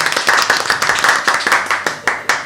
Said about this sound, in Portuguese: Meu Deus! Rapaz, uma salva de palmas pra essa